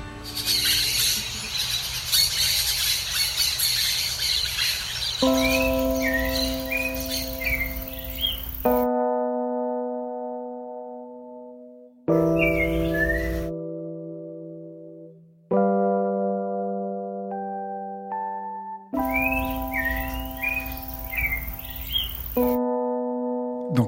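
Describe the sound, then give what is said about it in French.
Birdsong from a field recording at dawn chirps and trills over steady, sustained musical drone tones as the introduction to a song, with the birds coming in and out in bursts as the tones shift and cut abruptly. No one speaks. “mais cette introduction, les sons d'oiseaux, ce sont vos propres enregistrements Vous faites du field recording Ou c'est une banque de sons pour vous,”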